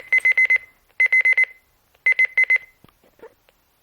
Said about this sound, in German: Der Wecker wird um 6 Uhr 30 klingeln.